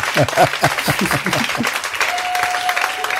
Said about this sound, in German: Dazu mal ein bisschen Applaus. Yeah! Cool.